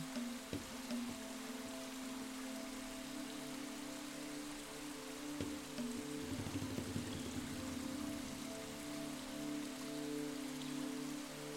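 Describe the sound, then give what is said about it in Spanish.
Steady water falls like rain onto a person standing beneath it, a continuous dense patter and hiss at an even level, with a soft sustained low hum underneath and a couple of brief thumps. No one speaks. “Estiras tus brazos y sientes la deliciosa agua cayendo sobre ti.”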